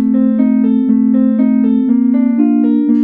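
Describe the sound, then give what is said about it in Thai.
Sonified data played as music: carbon dioxide levels in the air recorded in Laos over the past 10 years, converted into sound with specialised software. Synthetic electronic tones step upward about every half second over a steady, sustained low drone, with no voices. “เราบันทึกการเปลี่ยนแปลงของคาร์บอนไดออกไซด์ในลาวในระยะ 10 ปีนี้ แล้วแปลงมาเป็นเสียงบรรเลงนี้โดยใช้โปรแกรมเฉพาะทาง นี่คือเสียงของระดับคาร์บอนไดออกไซด์ในอากาศที่บันทึกได้ในลาวตลอด 10 ปีที่ผ่านมา”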